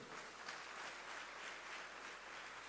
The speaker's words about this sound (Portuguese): Seja animado, a alegria do Senhor é a nossa força. Aplauda Ele, meu irmão.